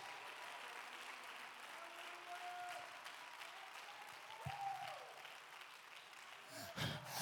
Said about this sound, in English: If you believe it, clap your hands.